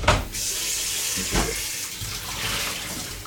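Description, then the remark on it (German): Cooking water being drained into a sink from a pot in which a large cabbage was boiled: a steady, splashing rush that runs for a few seconds, broken by a couple of brief clunks, with no voices. “Ja, gießen wir das ab, bitte.”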